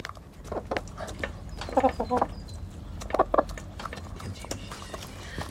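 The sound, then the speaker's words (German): Hens in a sloping garden with a henhouse cluck in short, choppy bursts, with a couple of louder clusters of clucks standing out over a steady background of scratchy rustling and light tapping. “Die begackern das, kann man so sagen.”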